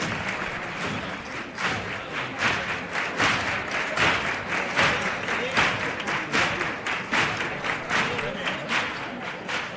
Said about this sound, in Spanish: Ahí le estaba costando arrancar los aplausos de la gente.